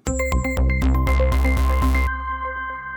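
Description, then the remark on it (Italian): A short, upbeat electronic theme jingle plays: punchy rhythmic hits over deep bass and bright synth tones, closing on a sustained ringing chord, with no one talking. “e quindi via con la sigla.”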